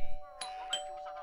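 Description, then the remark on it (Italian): A house doorbell rings in a short electronic chime, two bright tonal strikes about a third of a second apart, moderately loud, with a faint steady hum underneath. “Suona il campanello di casa.”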